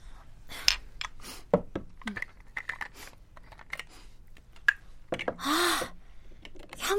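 Quiet clicks and clacks of a hair iron clamping and releasing as a woman curls her hair, with light rustling of hair, scattered irregularly, and a short hissing burst near the end.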